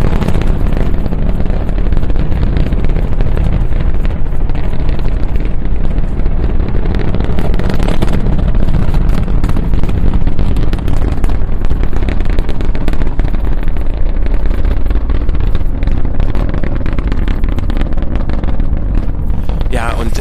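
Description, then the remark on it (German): A SpaceX Falcon Heavy rocket launches on its test flight and roars continuously, a loud, deep rumble with a crackling, sputtering texture that holds steady and powerful throughout, like a massive thundering blast. “This video is the test flight for the SpaceX Falcon Heavy rocket.”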